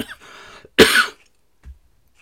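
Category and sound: human body sound, coughing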